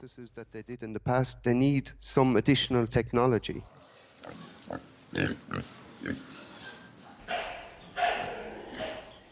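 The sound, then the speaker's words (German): A voice speaks briefly, then pigs in a barn cough in a scattered series of short, rough bursts, some nearer and louder, others fainter, over a dull stall background. “Irgendwo im Stall husten einige Tiere.”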